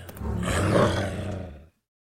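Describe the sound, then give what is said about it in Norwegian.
A single loud, growling roar like a wolf's, the wolf eating the girl in an early version of Little Red Riding Hood, swelling over about a second and a half, then cutting off abruptly into silence, with no talking. “Og så spiste ulven jenta.”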